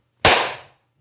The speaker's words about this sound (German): Äh, das können wir aber doch jetzt noch nachholen. Ich werde jetzt klatschen.